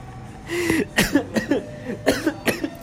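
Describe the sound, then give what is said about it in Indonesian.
A series of harsh coughs in quick succession, five or six bursts with short gaps, loud and raspy with a bit of throat strain, no talking over them. “Kalau Aduh Batuk Aduh Bahas-bahas cinta nih kayaknya batuk nih”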